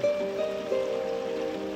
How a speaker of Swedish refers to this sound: kan höra vattnet här bakom, hur den porlar och eh, bara känna den här sköna naturen nära intill mig.